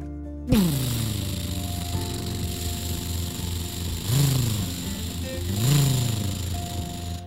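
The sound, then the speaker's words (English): A purple monster truck engine roars to life with a sudden burst, then idles in a deep rumble before revving hard twice, its pitch rising and falling with each surge, as the truck races up a street driving on top of parked cars. “When the sound became a deafening Roar! They knew they had the right street.”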